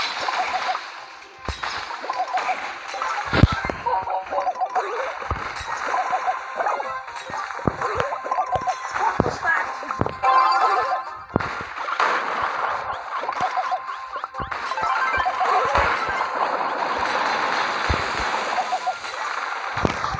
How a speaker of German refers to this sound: seine Flaschen ähm, fallen dann ja so auf den Boden ab und dann macht das so ein Ge Geräusch. Wartet. Ist so nice. Ich mag das Geräusch irgendwie